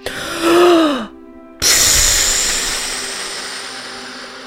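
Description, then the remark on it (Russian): A deep, slightly voiced inhale, a brief pause, then a long, loud, breathy exhale that gradually fades, with no talking. “Чтобы чуть-чуть их ослабить, давай вместе так глубоко вдохнем. И шумно выдохнем.”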